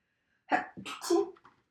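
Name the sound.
a sneeze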